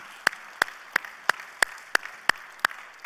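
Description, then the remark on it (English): In a church service, an audience claps together in a steady, even rhythm, about three sharp claps per second, moderately loud over a quiet background, with no talking, applauding the church members standing that morning. “So let's give everybody a round of applause that's standing this morning.”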